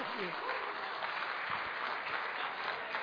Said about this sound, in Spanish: ¿Cuánto le dan un fuerte aplauso al Rey de Reyes?